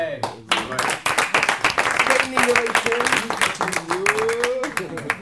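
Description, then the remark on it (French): A group bursts into applause for a 20-year-old, many hands clapping in a dense, steady patter for several seconds, with voices calling out and talking over the clapping. “c'est normal que le groupe t'applaudisse parce que t'as 20 ans, t'es en devenir.”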